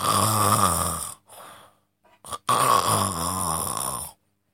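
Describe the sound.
A voice imitates a sleeping little pig snoring: two long, rough, rumbling snores with a short snuffling breath between them, loud and throaty with no words spoken.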